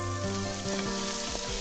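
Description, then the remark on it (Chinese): Crab meat sizzles steadily in a wok, a continuous, crackling hiss at even loudness for under two seconds, with soft sustained tones running underneath and no voices. “将蟹粉放入锅内，”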